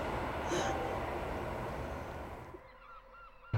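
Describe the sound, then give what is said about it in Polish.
A train passes during the Sopot Literary Festival 2022 in Sopot with a loud, steady roaring rumble that suddenly drops off near the end, leaving a quieter background with faint high bird chirps. No one speaks. “E, słychać ptaki, przejeżdżające pociągi”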